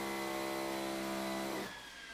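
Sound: power drill drilling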